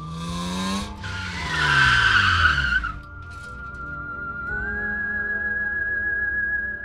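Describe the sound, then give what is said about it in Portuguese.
Car tires screech loudly in a long, harsh skid as the driver brakes hard when a child of about 6 to 7 runs across the street in front of the car, a rush of scraping noise with a rising engine whine, fading into a steady high-pitched squeal that holds until the end. “A Juliana disse que felizmente os freios estavam bons e que ela conseguiu frear.”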